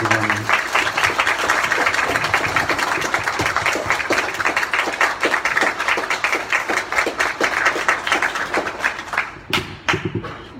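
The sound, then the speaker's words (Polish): A crowd applauds steadily to thank a woman guest at the end of a conversation with audience questions, a dense wash of many hands clapping at an even loudness for about nine seconds before thinning out and stopping, with a few scattered claps at the end. “E, słuchajcie, bardzo, bardzo dziękuję za wszystkie pytania i za tę rozmowę i proszę o gorące brawa i podziękowanie dla Pani.”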